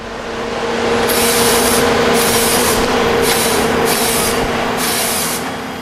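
A forestry harvester drones with a steady low hum, while five loud bursts of high hissing, whining noise come at regular intervals as its hydraulic grapple arms grip a trunk and its swivelling saw blade cuts, felling a 30-metre-tall tree. No one speaks.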